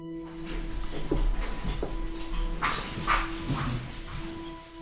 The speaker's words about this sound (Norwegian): Når døra går opp, hører vi lyden av tre små pomeranians som kommer springende mot oss.